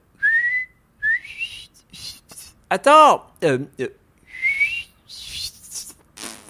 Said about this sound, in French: Ah, j'ai les lèvres gercées, j'arrive pas à siffler.